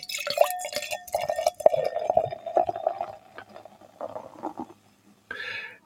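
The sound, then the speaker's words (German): Beer from a bottle by Meisel and Friends of Bayreuth glugs and splashes steadily into a glass for about five seconds, a bubbly gurgle with a faint rising tone, then trails off into a brief fizzy hiss. “Ich Lass mal reinlaufen.”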